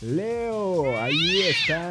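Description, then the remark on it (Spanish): A person's voice imitates a cat meowing: a loud, drawn-out wavering cry that rises and falls in pitch, followed by a brief second mew. “Eso es un gato, no Leo.”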